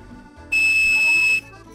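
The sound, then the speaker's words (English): A toy whistle from a Cap'n Crunch cereal box, blown with one of its holes held, gives one loud, steady, piercing 2600 hertz tone lasting nearly a second, holding a single unwavering pitch before cutting off abruptly. No one talks over it. “that's 2600 hertz tone.”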